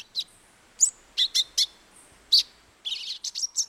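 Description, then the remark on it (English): A euphonia gives a series of short, sharp, high-pitched false alarm call notes in uneven bursts, some doubled, ending in a quicker cluster of chattering notes, with no one talking. “The euphonia, meanwhile, sits tight, maybe shouting out a few more bogus alarms while others do the dirty work.”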